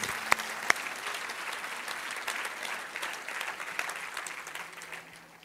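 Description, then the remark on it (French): An audience claps steadily for several seconds, a dense wash of many hands applauding at once, consistent before easing slightly at the end. “Si on peut applaudir les vies, les choses, ce qui a pris place dans la vie de ces personnes-là.”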